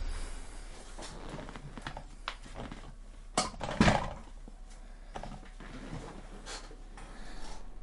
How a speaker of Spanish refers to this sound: Caramba, espérate, se me, se me achata la silla.